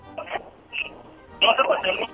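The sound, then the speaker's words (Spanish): Short electronic telephone tones beep in a few separate bursts, then a longer, louder run of tones, a bit harsh, like buttons pressed on a phone keypad as someone places a call. “Espérate, tú estás llamando para algún lado.”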